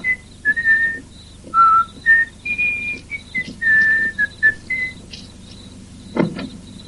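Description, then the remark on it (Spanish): A man whistles a cheerful, bouncy tune of short and held notes, clear, as he walks to his car, with a faint low hum of an outdoor setting beneath and a brief thump near the end. “va hacia su coche silbando con optimismo.”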